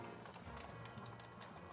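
Horse hooves clip-clop in a steady, unhurried rhythm, several distinct hits over a low continuous background rumble. Nobody speaks.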